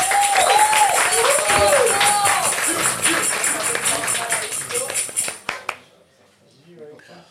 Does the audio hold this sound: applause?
yes